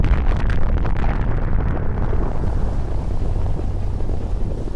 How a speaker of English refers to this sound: A sonic bomb explodes in Syria.